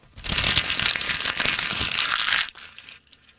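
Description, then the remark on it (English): Paper crinkling loudly and continuously for about two seconds, a dense crackly rustle, then stopping abruptly with a few faint rustles trailing off. “And now, a sound of paper crinkling.”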